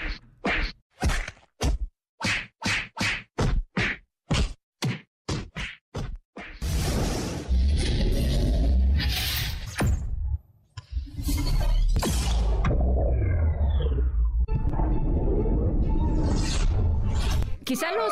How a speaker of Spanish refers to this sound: fans de corazón de, los superhéroes ya reconocieron el sonido que estamos escuchando, es el sonido de Flash, ¿no? Corriendo a toda velocidad.